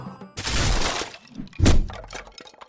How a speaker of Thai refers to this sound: จู่ๆผลมะตูมลูกหนึ่งก็หล่นจากต้น ตกใส่บนหลังคาใบตาล อันเป็นรังของเจ้ากระต่ายเข้าเต็มเป่า